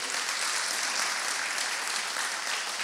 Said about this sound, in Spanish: 2024 a las 12 es donde hay más personas. Darte un fuerte aplauso por estar aquí a las 12.